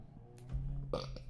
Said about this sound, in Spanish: Ah, Disculpe. El, el gato tiene hipo.